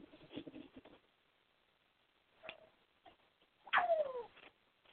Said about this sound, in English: Oh, excuse me, I gotta put a squawky bird to bed.